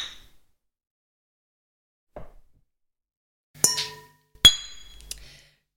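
Glasses clink together in a toast: a soft tap, then two bright, ringing clinks about a second apart, each tone lingering briefly before fading. No one speaks.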